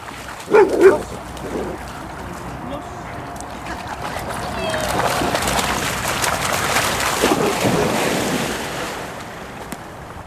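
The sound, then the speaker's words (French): A dog lets out a couple of sharp barks at the start, then steady rushing water and gusty wind noise take over, with a few more yaps underneath; dogs at a sky-blue lake, Warren Place, reached after a walk in the woods in Belgium. “C'est le paradis pour les chiens.”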